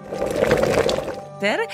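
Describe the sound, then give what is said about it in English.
Water for cooking pasta pours in a steady, splashing rush for just over a second, then stops, followed by a brief voiced sound that swoops up and down in pitch. “Take the sheet pasta, cut it into two inch squares, then cook it in a water”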